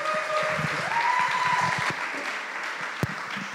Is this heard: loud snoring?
no